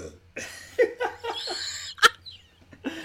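A loud burp, drawn out over a couple of seconds in throaty, gurgling bursts, with a sharp short pop near the end and a soft breath after.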